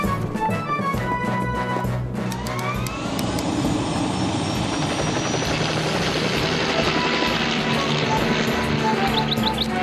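A rescue helicopter in the Fireman Sam cartoon flies overhead to a cliff where Norman Price is trapped, its loud rotor chop and engine roar filling all ten seconds steadily, with a rising turbine whine partway through and a few faint high chirps near the end.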